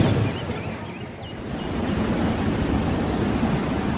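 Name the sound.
storm wind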